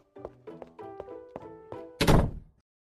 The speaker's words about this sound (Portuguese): Entra e fecha a porta abruptamente.